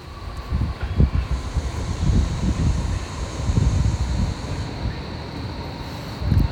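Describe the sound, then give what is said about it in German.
A U-Bahn subway train rumbles by outdoors near water in the evening, a steady low roar with a faint high whine, mixed with buffeting wind noise on the microphone. No one speaks. “Ähm, ach ja, und hier fährt die U-Bahn. Die uns auch ein bisschen stört.”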